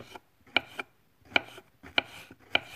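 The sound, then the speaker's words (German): A knife slices cleaned mushrooms, some of them porcini, into thin slices on a cutting board: about five crisp cuts at an uneven pace, each a sharp tap with a brief scrape, no voices. “Die Pilze sind sauber und jetzt schneide ich sie in feine Scheibchen.”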